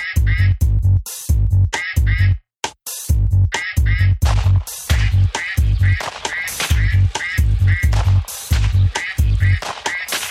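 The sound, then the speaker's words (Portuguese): Loud duck quacking in rapid bursts, one harsh quack after another in a fast, almost nonstop rhythm, broken only by a brief pause early on. “Temporada de caça aos patos.”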